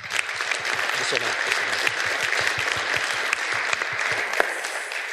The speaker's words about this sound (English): First of all, just to be up here. Second of all, to hold a mic. And third, to share your heart. So another warm round of applause